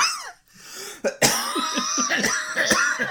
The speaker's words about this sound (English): You're gonna have to cut out my coughs.